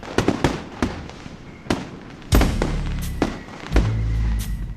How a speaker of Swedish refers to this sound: Huruvida Fyrverkerierna skrämmer bort onda andar, vilket ju ursprungligen var fyrverkeriernas syfte.